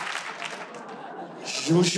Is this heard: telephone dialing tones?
no